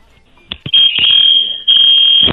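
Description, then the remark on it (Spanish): A loud, piercing electronic building fire alarm tone blares in two long sustained bursts with a brief gap, accompanied by a few sharp clicks or thumps, insistent. “alarma de incendio del edificio se acaba de prender, así es que, Ay.”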